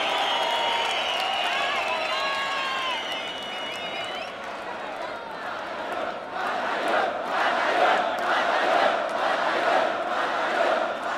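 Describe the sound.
A large crowd at a freestyle rap battle in Chile cheers and shouts continuously for the two competitors, a dense roar of many voices with some high whoops early on, swelling louder in the second half.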